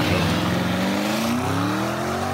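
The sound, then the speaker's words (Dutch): A powerful 4-liter, 650 hp V8 car engine, the same engine block used in the Audi RS6 and Porsche Cayenne Turbo, revs up loudly, its throaty pitch climbing steadily over a couple of seconds without any talking. “Maar wat 4 liter V8? 650 pk.”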